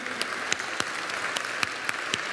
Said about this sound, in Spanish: Dale un aplauso fuerte a Dios. Fuerte, fuerte, porque Dios es bueno.